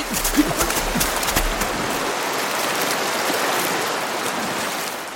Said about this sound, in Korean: 나가야 돼. 나가야 돼, 빨리. 물이 다시 차오르기 시작했어.